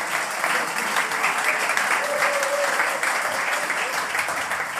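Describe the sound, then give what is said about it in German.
Steady audience applause for an opening text at a football-themed live event: a dense wash of many hands clapping at an even, fairly loud level for several seconds, with a faint murmur of voices mixed in. “Und bitte, das war der Applaus für diesen Anfangstext”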